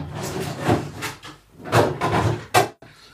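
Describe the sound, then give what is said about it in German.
The beer compartment of a fridge is pulled open to take out a beer, with a series of loud, rattling clunks and scrapes of glass and plastic, ending in one sharp clack before a brief quiet. “geht zum Kühlschrank, geht zum Bierfach, macht das Bierfach Schulburg auf. Es war laut.”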